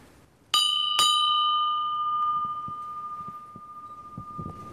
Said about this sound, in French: Et c'est marqué Please ring the bell, il faut sonner Ah ben voilà, la cloche se trouve à côté.